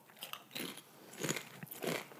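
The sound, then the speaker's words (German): Crunching of a potato chip being eaten: a few crisp, brittle bites and chews in quick succession, fairly quiet, with no talking. “Ich esse nur noch einen und dann hören wir auf.”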